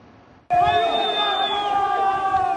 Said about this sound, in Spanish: Son los gritos de personas privadas de su libertad solicitando desesperadamente ayuda luego de un motín registrado el fin de semana en el Centro de Privación de la Libertad de Turi en Cuenca, localizada a unos 480 kilómetros de Quito.